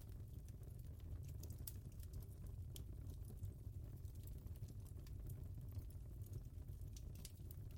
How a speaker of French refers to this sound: Vous entendez les crépitements du bois qui se consume.